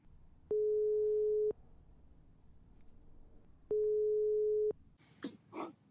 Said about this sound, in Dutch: De telefoon ging zes keer over.